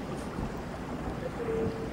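Rain falling outdoors at 7:25 in the morning in Pachaquinita, picked up by a microphone placed outside: a steady, even hiss of drops with a soft low rumble beneath, continuous and fairly quiet throughout, with no voices.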